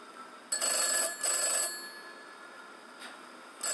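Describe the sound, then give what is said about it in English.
An old-style telephone bell rings in two quick bursts, then another begins near the end, clear with no one talking. “Don't be afraid of Harper, it's just a phone.”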